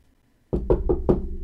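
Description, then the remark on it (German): Four firm, evenly spaced knocks on a large, heavy sliding door ring out after a brief silence, each with a deep, resonant thud that lingers slightly. No voices are present. “Ähm, ihr macht die Türe auf, schließt sie hinter euch und jemand von euch klopft an diese schwere große Schiebetür.”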